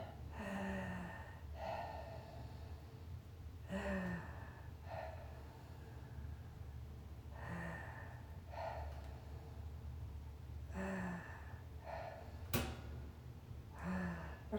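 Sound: heavy laboured breathing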